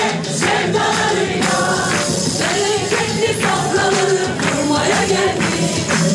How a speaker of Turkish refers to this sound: Sarıgül tezahüratlarla girdi salona.